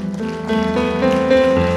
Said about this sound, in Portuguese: Aplauda mais forte.